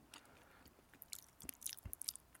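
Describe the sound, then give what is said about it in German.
Close-up chewing and crunching of a Ballisto muesli bar, with moist, crackly bites repeating irregularly right next to the microphone, no speech. “Das klingt total unsexy, wenn du ein Ballisto ist, dein Mikrofon, echt.”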